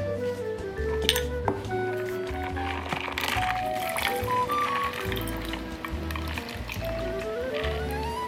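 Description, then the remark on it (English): A Negroni pours steadily into a glass over one big ice cube from the freezer, with a gurgling tone that rises in pitch as it fills and occasional light clinks of ice against glass. “And then we pour the drink over that.”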